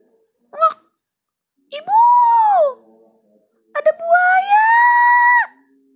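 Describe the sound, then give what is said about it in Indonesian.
A brief yelp, then two long, loud, shrill screams, each held for about a second or more with a rising, strained pitch, alone, like a voice performing panicked screaming as loud as possible. “Titan berteriak sekuat-kuatnya.”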